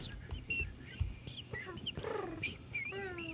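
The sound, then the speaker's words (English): A bird clucks and squawks in a short burst of harsh, repeated calls, bunched together over a low, muddy background rumble. “Don't like that bird.”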